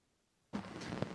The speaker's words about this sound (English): Yeah, you just cut out for a sec, but um, let me see. We've had we've had a couple audio issues. That could be me, could be you.